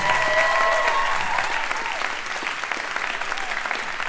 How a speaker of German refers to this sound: Ist immer geil, wenn man Tosenapplaus bekommt und dann im Stillen abläuft.